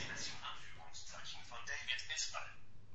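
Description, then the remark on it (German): A quiet, rapid synthetic voice of the Mobile Speak screen reader chatters continuously in the background, its words indistinct, with a faint hiss underneath. “Ja, man hört so ein bisschen im Hintergrund dass”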